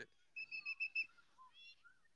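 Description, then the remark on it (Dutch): A referee's whistle at a football match gives about five short, shrill blasts in quick succession, loud, followed by a few softer, wavering whistle tones. No one speaks. “de scheids begint te fluiten, maar ik denk voor een overtreding omdat er een tik werd uitgedeeld.”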